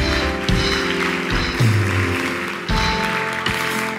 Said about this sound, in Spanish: Dios se llevará toda la gloria. Dale un aplauso a Él si lo crees.